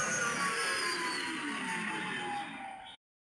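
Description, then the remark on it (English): An X-wing starfighter flyby sound effect: a loud, roaring engine whoosh with tones sliding downward in pitch, sustained for about three seconds before cutting off abruptly. No voices. “That is the X-wing flyby sound.”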